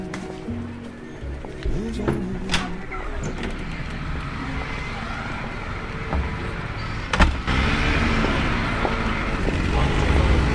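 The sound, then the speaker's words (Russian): A busy street in Amsterdam: steady traffic rumble with cars passing, a few sharp knocks and clatters, and indistinct voices faintly mixed into the continuous outdoor noise. “по гулкой узкой деревянной лестнице типичного амстердамского подъезда я спускаюсь на шумную улицу.”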